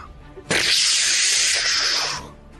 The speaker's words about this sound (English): You are looking into its mouth, um, nice. and it will it will open its mouth, and a cone of scalding steam